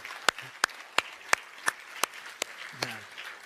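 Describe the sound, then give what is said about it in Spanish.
A church audience applauds for the Lord during a sermon. About nine sharp, evenly spaced claps sound in a steady rhythm over a softer wash of scattered clapping. A faint voice briefly sounds near the end. “¿Por qué no le damos un aplauso fuerte, fuerte al Señor?”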